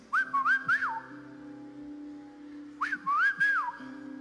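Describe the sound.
A person whistles two short rising-and-falling phrases, imitating a father's whistle at seven in the evening calling his child home, separated by a pause of about two seconds, clear, with a faint hum in the background and no talking.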